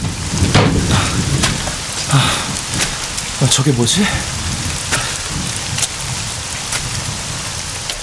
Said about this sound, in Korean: 헤드라이트 불빛에 세찬 빗방울이 어지럽게 나부꼈다.